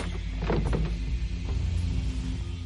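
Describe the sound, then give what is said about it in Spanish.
A man tries to open the locked door of an RV, giving a short cluster of metallic clunks and rattles early on, then a steady low rumble with no voices. “Hank se acerca a la puerta e intenta abrirla.”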